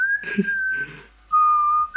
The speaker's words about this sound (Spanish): Sí, y acá atrás de tu cabecita tienes al … chiflando.